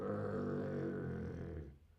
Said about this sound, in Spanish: Un gruñido.